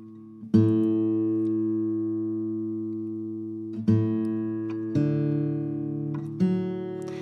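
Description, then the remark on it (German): An acoustic guitar's open strings in open D tuning (D, A, D, F#, A, D), strummed four times from top to bottom with nothing fretted, giving a D major chord, with no one talking. One long ringing chord, then three quicker strums, each sustaining and fading. “Genau, wir hören, wir haben da D, A, D, Fis, A und D.”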